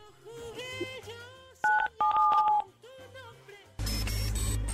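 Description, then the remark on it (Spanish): A few telephone keypad tones beep in quick succession as 977 is pressed on a phone to spin a Mitsu prize tombola, over soft background music, followed by a sudden burst of loud, rushing noise. “presiona en tu teléfono el 977 para que gires la tómbola de Mitsu.”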